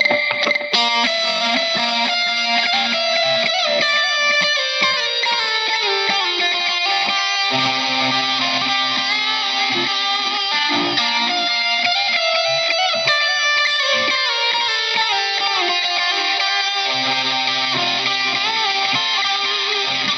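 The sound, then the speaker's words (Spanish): A loud, heavily distorted electric guitar solo with long sustained notes and sliding, descending lines, echoing through a delay effect that changes partway, playing steadily without any voices for about twenty seconds. “solo con una, un poco más de distorsión y ahí cambian el, cambia el delay.”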